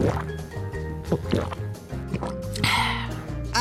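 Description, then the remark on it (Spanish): Water is poured and splashes, with short gulping sounds of someone drinking it, all set against a steady musical backdrop. “No, hijo es agua de Hugo. ¡Ah, genial! Perfecta bebida de los dioses.”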